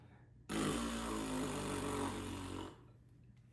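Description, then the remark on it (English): A voice imitates a fart with one long, loud, buzzing raspberry lasting about two seconds, low and rumbling with a rough flutter, then it cuts off into quiet. “On the way home, I, I my farts are doing this.”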